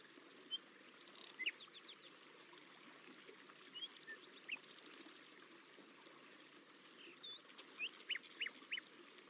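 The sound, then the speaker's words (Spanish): Several birds chirp and sing in scattered bursts among trees, over a steady, soft background wash like running water, with a quick rapid trill near the middle; the calls are fairly quiet. “Notas los cantos tan diversos y armoniosos de los pájaros y otros animales.”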